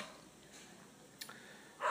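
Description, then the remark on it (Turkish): A dog barks once or twice, a short sharp yap followed by a louder, fuller bark at the end, with no talking. “Evet köpeğimiz de bizle şiurtora yapmak istiyor.”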